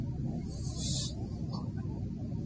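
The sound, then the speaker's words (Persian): Water lapping around rocks, a steady low, churning wash with a couple of brief hissing splashes rising above it, fairly quiet and continuous with no voices. “صدای آبی که از دوروبر صخره در میآید به طور واضح در آب شنیده می شود”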